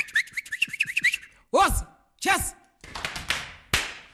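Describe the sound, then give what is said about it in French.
Rhythmic foot stomps and sharp taps on the floor from Pantsula dancing, a dance built on very fast footwork, mix with shrill, warbling whistles and whoops, in quick irregular bursts, loud and lively, with a voice calling out among them. “Les percussions des pieds sur le sol et les sifflements rythment les mouvements”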